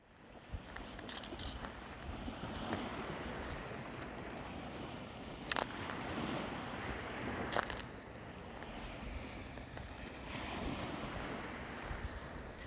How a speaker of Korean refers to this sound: 그러면 두루의 바다 걷는 소리 들으면서 마무리하겠습니다.